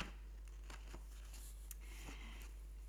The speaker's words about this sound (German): Und zwar geht das jetzt so, ich werde hier blättern und irgendwo meinen Finger reinhalten mhm. und dann sagt mir das Universum, das ist eure Weisheit.